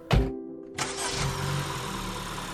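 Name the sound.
car engine starting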